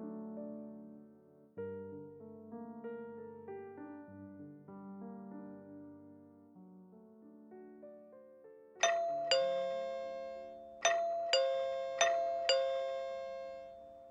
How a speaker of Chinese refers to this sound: 一阵门铃声吵醒了顾城